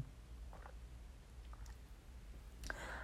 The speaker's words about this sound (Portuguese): Deixa eu tomar um golinho do meu chá aqui, que daqui a pouco eu vou dormir.